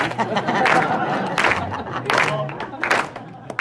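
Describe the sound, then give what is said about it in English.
A crowd claps together in a steady rhythm as accompaniment for a singer, in the key of C, loud, sharp group claps landing roughly every three quarters of a second over a bed of murmuring voices and crowd noise. “Just start clapping.”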